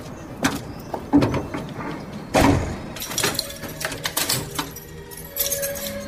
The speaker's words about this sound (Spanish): Ella cierra el portón y luego entra a su casa.